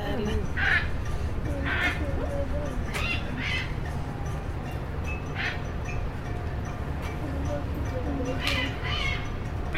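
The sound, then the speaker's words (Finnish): Parrots outside a hot, tropical butterfly enclosure call loudly and repeatedly, harsh squawks and shrill cries recurring every second or so, heard from inside among free-flying butterflies, over a constant low background rumble. “Eli siis papukajat on ulkopuolella, täällä on siis vähän perhosia. Hämäävää, kun ne kuuluu noin voimakkaasti tai äänekkäästi tuolla.”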